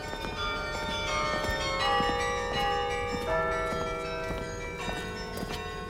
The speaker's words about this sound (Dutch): Is de wintertrap opgeklommen en daar zat meneer Leenhof, de stadsbijldier, organist van de Grote Kerk te Sint Maarten en eh, stadsmuziekmeester, zat hij daar carillon te spelen.